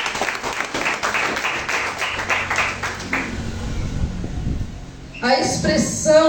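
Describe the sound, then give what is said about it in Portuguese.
A church audience applauds the Lord after a prayer in a Portuguese-language service, with dense, steady clapping for about three seconds, then it fades into a low murmuring rumble before a voice starts speaking near the end. “Aplauda ao Senhor, pode se assentar.”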